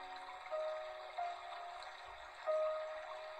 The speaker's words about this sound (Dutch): En geef ze mee met deze stroom, met deze stromende rivier.